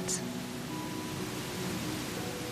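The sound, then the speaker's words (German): A steady, dense, deafening roar of huge masses of water pouring over a rock face from a giant waterfall at least 100 metres high and broadly fanned out like a curtain, holding a constant, unbroken loudness throughout. “Es ist tatsächlich ein Wasserfall. Und zwar ein gigantischer. Ohrenbetäubend rauschen gewaltige Wassermassen über eine Felswand.”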